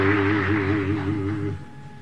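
A voice sings a French resistance song, holding a long note with vibrato over a low steady accompaniment before the sound drops away into quiet.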